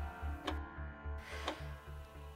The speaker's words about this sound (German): der am Esstisch den Tee blass und das Ticken der Uhr, die auf dem Boden an der Wand lehnt, zu einem Tosen werden lässt.